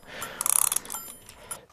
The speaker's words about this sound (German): Dann ziehe ich jetzt hier mal diesen, diesen Wecker auf. Ähm, das ähm, machen wir immer so.